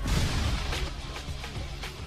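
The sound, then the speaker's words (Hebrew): Booming blasts and sharp bursts of gunfire from the opening intro of one of Popeye's videos, dense and chaotic, with repeated transient cracks over a rumbling low-end wash, loud with no voices. “או למשל, בתחילת כל סרטון מופיע פתיח ובו קולות נפץ וציורי קליעים.”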